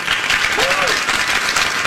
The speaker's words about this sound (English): I hate the applause.